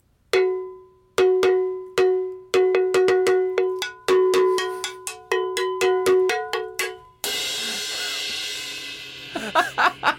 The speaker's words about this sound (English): I can I can just imagine riding the train and hearing this, and I was like, is she like, is she banging on a drain pipe? Like, not a drain pipe. I am the proud holder of a cowbell. This is my first time playing, as you may have figured out.